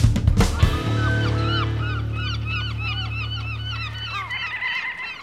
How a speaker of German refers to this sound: Guck mal, da fliegen welche. Und die heißen Krabbentaucher? Noch nie gehört den Namen.